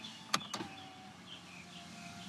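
Two quick clicks from a car power window switch, followed by a steady, quiet electric motor whir as the window rolls down on a car with iced-over windows, with no talking.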